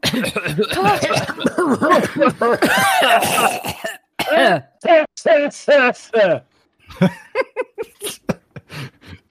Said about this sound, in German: und löst sich in schwarzen Staub auf, der aufgewirbelt wird in den Raum wie ein Nebel, sodass ihr alle ein wenig äh, husten müsst.